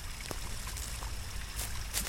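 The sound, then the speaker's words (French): A small stream trickles steadily in a forest, where streams mix with a pipe that breaks the surface: a continuous soft watery wash with faint splashy ticks scattered through it and no voices. “Il y a des ruisseaux qui se mélangent au tuyau qui affleurent.”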